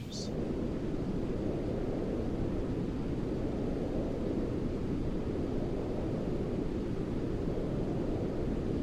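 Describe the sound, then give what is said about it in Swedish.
A steady wash of white noise plays continuously at an even, moderate level for the whole stretch, a dense rushing hiss with a deep, rumbly weight and no voices or other sounds. “så här låter eh, brus.”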